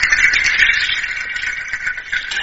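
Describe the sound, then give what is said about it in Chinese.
A rattle made of natural fruit or seed shells, an instrument found across tropical countries that can be tied to the hands or feet, shaken in a steady, dense stream of dry, bright clicking and rustling, fairly loud and continuous with small surges, no voices over it. “然后像这一些像果壳一样的这种乐器，就是基本上 全世界的这种热带国家 嗯 全都有，然后它可以绑在手上，或者是绑在脚上，一边跳一边，就像 就是会有声音。”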